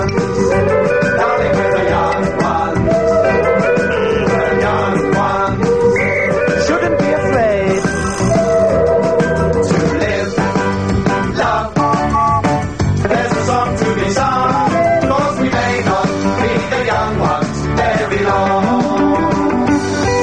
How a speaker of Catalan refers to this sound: Ja sabeu que quan sona aquesta sintonia arriba a la secció de distorsió del programa i ja arribem cap a la recta final.